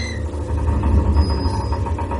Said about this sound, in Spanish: La farola que hay tras él parpadea. Se levanta un fuerte viento. Los columpios de un parque infantil que hay tras él se mueven solos.